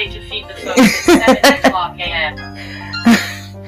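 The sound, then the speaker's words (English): A voice mimics an alarm going off, with a quick run of rhythmic, beeping bursts followed by a sustained tone and one more sharp blast, fairly loud. “look, that's the alarm.”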